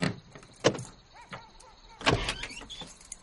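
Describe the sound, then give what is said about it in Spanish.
The door of a black van is pulled open with a sharp clunk, followed by soft shuffling and creaks, then a second heavier thud as someone climbs into the driver's seat, fairly loud. “Abre la puerta y se monta.”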